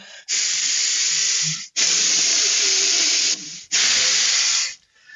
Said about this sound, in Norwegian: Så det, jeg får Jeg puster eh, veldig eh, Altså eh, frekvensen går veldig ned når jeg puster med nesa. Så går jo også volumet på, på, eh, av det som, altså lufta som kommer inn og ut, går jo også ned.